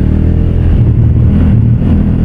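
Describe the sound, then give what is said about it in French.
An NT1100 touring motorcycle engine rumbles loudly, a steady low throb with slight rises in pitch as it revs, continuing throughout with no one speaking. “C'est vraiment une moto de tourisme.”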